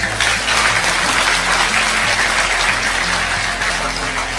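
A crowd claps steadily for about four seconds in applause for Allah, a dense, loud wash of hand claps with no pause, while a faint low hum runs underneath.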